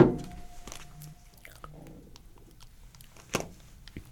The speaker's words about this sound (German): Kein Problem, das war kein copyright geschützter Sound, den dein Handy gerade von sich gegeben hat.